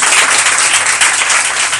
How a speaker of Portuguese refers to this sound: Dá uma linda salva de palmas ao Senhor Jesus.